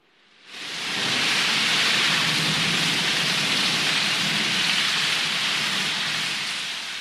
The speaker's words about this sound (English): Large drops of rain fell heavily, soaking them to the skin instantly.